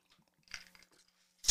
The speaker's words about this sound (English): I, I need to I need to sip of my dry fly. Hang on.